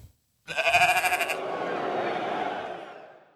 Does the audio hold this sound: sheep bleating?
yes